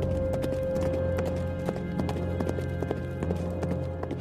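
Horse hooves clip-clop in a steady, quick rhythm over a continuous low hum, with no voices and a constant level, as Philips rides away on horseback from the palace on the Koude Berg in Brussels, with drizzle falling.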